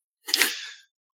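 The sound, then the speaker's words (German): A single sharp sneeze bursts out loudly and then trails off quickly into silence, with no talking around it. “Gesundheit”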